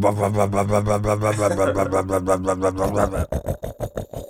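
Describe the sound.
A voice imitates a revving rotary engine with a buzzing, pulsing drone that rises and falls, then breaks into choppy bursts near the end. It is fairly loud.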